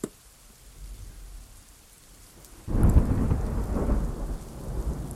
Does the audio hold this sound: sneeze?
no